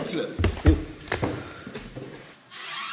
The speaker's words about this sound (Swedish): Så, då har de stängt dörren